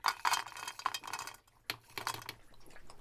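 Orus, a freshly trimmed dog, laps water from a bowl, thirsty after eating a whole bowl of food that evening: a quick, irregular run of wet clicks and splashy taps with a brief pause midway, fairly loud, with no voices.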